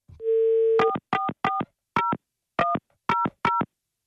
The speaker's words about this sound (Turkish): Tamam. Arıyorum şimdi numarayı. Hadi bakalım.